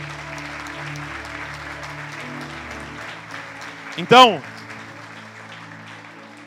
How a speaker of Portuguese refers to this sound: Aplauda o Senhor para esses atores maravilhosos.